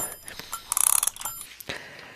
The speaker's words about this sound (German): Dann ja. würde ich nämlich mal die, den Wecker hier aufziehen.